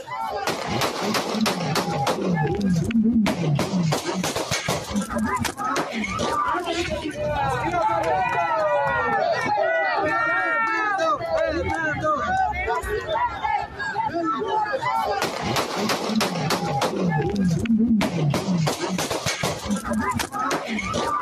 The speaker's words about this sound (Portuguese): O ataque foi ontem à tarde, na capital Quito, quando Vidi Ascencio deixava um colégio onde tinha realizado um comício. Ele entra no carro e é possível ouvir uma rajada de tiros.